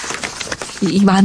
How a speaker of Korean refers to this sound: 종이들의 소리.